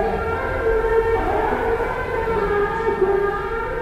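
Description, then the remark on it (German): A muezzin's call to prayer in Tunisia in 2001 rings out over loudspeakers, heard from the open first-floor corridor of a guesthouse overlooking its courtyard, one long sustained sung tone wavering slightly in pitch, reverberant and fairly loud, with a low background rumble beneath it. “Der Ruf des Muezzins Wohl einer der typischsten Ohrenblicke meiner Tunesienreise von 2001.”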